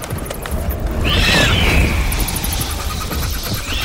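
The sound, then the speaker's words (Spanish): A loud, dense rush of the flapping wings of hundreds or thousands of giant bats drawn to a light at night, a continuous fluttering roar that swells and holds, with thin high-pitched squeals sweeping through it. “Era el aleteo de cientos, miles de gigantescos murciélagos que acudieron al llamado de la luz.”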